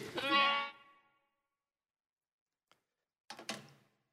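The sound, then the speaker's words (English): A sheep lets out one loud, wavering bleat, then after a quiet pause and a faint click, gives a shorter, rougher second bleat. “Oh, well, and so David returned to his sheep.”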